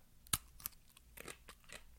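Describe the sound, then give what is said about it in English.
A sharp crunch as someone bites into a crisp cucamelon, followed by a second snap and softer crunchy chewing sounds, with no talking. “I don't know if you heard that crunch, but they are nice and crunchy.”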